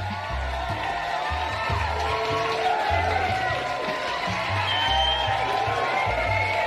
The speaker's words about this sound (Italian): È, eccessivamente lungo questo applauso. Non c'è nessuno che fa applausi ah, così lunghi.